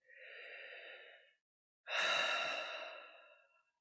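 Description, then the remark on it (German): A slow, audible deep inhale lasting over a second, a brief pause, then a longer, fuller exhale like a sigh, clear with no talking. “Tief durchatmen, nicht zu viel erwarten, einen Schritt nach dem anderen.”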